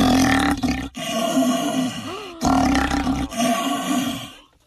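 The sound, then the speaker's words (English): A person imitates a lion's roar through an empty paper towel roll, producing a hollow, growling rumble: several loud, drawn-out bursts in quick succession, with the last one trailing off. “So let's listen to his latest one where he teaches us how to roar like a lion.”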